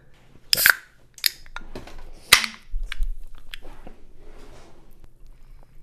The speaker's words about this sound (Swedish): Jag trodde faktiskt att du eh, klickade i eh, en öl i glaset. Nej, det här blev en trockamust.